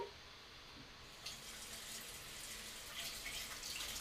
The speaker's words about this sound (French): Il faut laver, laver, laver les couteaux, ouch, laver les assiettes dans l'évier c'est le mot numéro 5, l'évier. Je fais la vaisselle